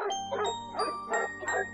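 The dog Xiao Diandian barks frantically, about five sharp barks in quick, even succession, over a steady backdrop of sustained ringing tones.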